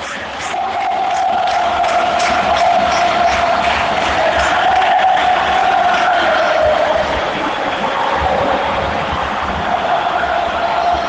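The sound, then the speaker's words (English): A huge stadium crowd at a football match roars continuously, cheering and whistling as the team in orange shirts gets the ball, with a steady sustained whistle running through the din for several seconds, loud and dense throughout with no single voice standing out. “Nerves haven't taken over in the stadium yet, but they're cheering and whistling every time the orange shirts get the ball.”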